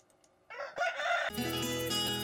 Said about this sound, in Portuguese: O galo, caipirada, vamos acordar, vamos pra lida.